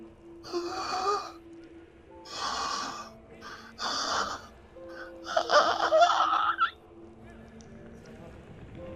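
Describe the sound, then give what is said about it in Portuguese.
A voice imitates someone struggling for air: four raspy, strained breaths, the last longer and wheezier, with a faint steady hum in between. “Parece alguém tentando respirar e não conseguindo.”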